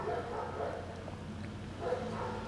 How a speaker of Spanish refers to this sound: oigan un perrito ladrar porque sabe que estoy hablando de animales, vamos a oírlo.